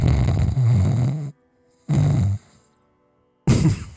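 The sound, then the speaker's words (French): A person mimics snoring with their voice: three loud, rasping snore sounds, the first long and the others shorter, separated by brief silent pauses. “je ronfle.”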